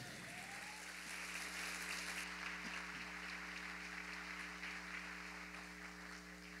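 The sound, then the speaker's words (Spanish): A church audience applauds the Lord steadily for several seconds, a dense wash of many hands clapping at once at an even loudness, with a low electrical hum running underneath. “¿Cuánto le dan un aplauso más fuerte al Señor?”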